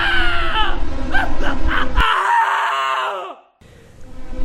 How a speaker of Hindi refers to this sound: उसी वक्त शशिकांत ने एक दर्द भरी चीख सुनी